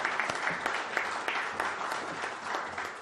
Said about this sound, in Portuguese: As palmas estão liberadas agora.